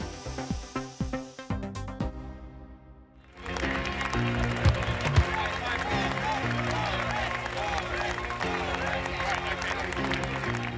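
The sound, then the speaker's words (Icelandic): A crowd of Conservative Party members in Manchester cheers UK Prime Minister Boris Johnson as he walks on stage: a few seconds of sharp, rhythmic hits give way to a sustained, loud wash of clapping, cheering and calls of his name that holds steady to the end, with music underneath. “Boris Jónsson, fórsætistráðra Breitlands, var fagnað þegar hann gekk á svið í Manchester í morgun til að ávarpa flokksískinni sín í íhaldsflokknum.”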